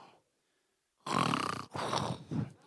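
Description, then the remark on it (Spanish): After a brief silence, a person mimics snoring with three loud, raspy, rattling bursts in quick succession, the first drawn out longest and the last one shorter. “Pero, señores ronquidos, ¿no?”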